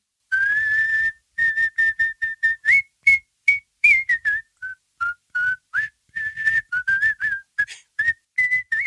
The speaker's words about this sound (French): il prend son pipeau, car c'est comme ça qu'il faisait au pays quand il était sur la colline. Le pipeau faire venir le soleil. il joue.